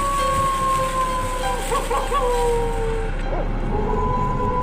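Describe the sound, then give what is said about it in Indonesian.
A dog howls in long, drawn-out wavering tones that rise and fall, sustained across the whole stretch after dusk, over a steady background hiss of bamboo leaves rustling. “Yang dimana hanya terdengar suara gesekan dedaunan bambu dan suara lolongan anjing yang membuat mencekam.”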